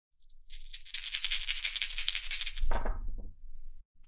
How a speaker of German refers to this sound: Dann werfe ich meine vier Würfel.